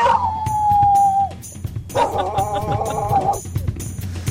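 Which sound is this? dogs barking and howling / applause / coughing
dogs barking and howling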